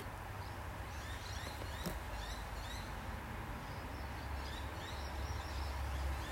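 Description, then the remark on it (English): Small birds chirp and twitter repeatedly, light and high, over a steady low rumble of traffic that fills the background throughout. “Yet this is my dream driven day listening to traffic, listening to bird song, talking to you,”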